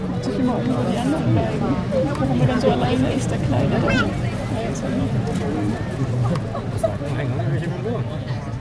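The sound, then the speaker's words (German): A dense crowd of spectators murmurs and chatters outdoors after sunset, watching penguins come out of the water to their nests under spotlights. Many overlapping voices blend into a steady hubbub at moderate volume, with no single voice standing out and no penguins audible. “Eine völlig andere Perspektive als die optische, denn man hört keinen einzigen Pinguin, dafür aber umso mehr Menschen.”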